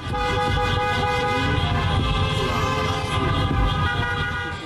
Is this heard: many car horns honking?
yes